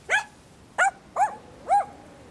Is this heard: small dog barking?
yes